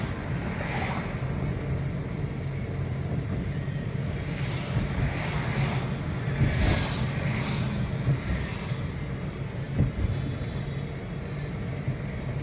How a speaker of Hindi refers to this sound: traffic है वो रोज़मर्रा की तरह तो नहीं है लेकिन लॉकडाउन में जिस तरह से पूरी सड़क खाली रहती थी एक गाड़ी चल रही है तो ना उसके आगे गाड़ी दिखती थी ना पीछे गाड़ी दिखती थी उसके कंपैरिजन में गाड़ियाँ आज काफ़ी चल रही हैं लगातार गाड़ियाँ चल रही हैं दोनों तरफ